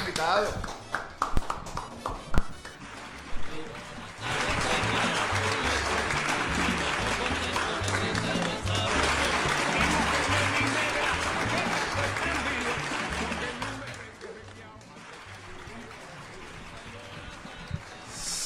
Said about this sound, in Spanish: Vamos a invitarle a los dos a la mesa, por favor, pasen por acá. Fuerte aplauso Para los invitados.